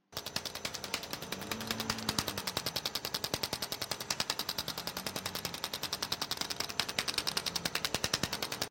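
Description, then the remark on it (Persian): A physiotherapy machine in a film scene pulses in a fast, steady train of sharp, gunshot-like clicks, loud, with a faint low hum rising and fading underneath; no one speaks. “ما همزمان صدای اون دستگاه فیزیوتراپی که شبیه به شلیک گلول است رو میشنویم نمادی از سرکوب نمادی از سرکوب درد”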